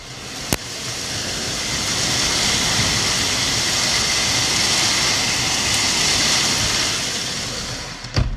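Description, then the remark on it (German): A dense, roaring wash of large hailstones pounds down without a break, loud, heard through an open window, with a sharp knock near the start and another near the end. “Alter, das Hagel so groß.”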